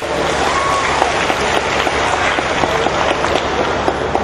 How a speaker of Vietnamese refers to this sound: nếu ta sống với thái độ và nguyên lý hành động này xin dành tràng pháo tay để tự khen mình